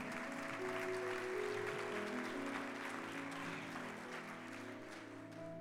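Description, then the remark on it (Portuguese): An audience applauds the Lord during a church service in a steady, dense wash of clapping that holds for several seconds, with sustained organ-like tones humming underneath. “Eu vou te, pode aplaudir o Senhor, vou te, mas eu vou te dizer, pode aplaudir o Senhor.”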